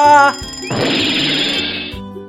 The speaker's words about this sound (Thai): เสียงนาฬิกาถูกคว้างลงบนพื้นอีกตามเคยนาฬิกาอุลตร้าแมนจุกจนต้องเงียบเสียงลงในที่สุด